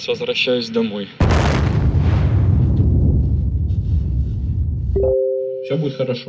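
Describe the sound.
A single loud artillery shell explosion bursts out suddenly, then rolls into a deep, rumbling boom that fades slowly over several seconds. Brief talking is heard just before and after.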